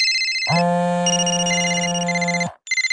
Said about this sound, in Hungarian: Ugye milyen rossz, ha vezetés közben csörög a mobil, és nincs kihangosítója?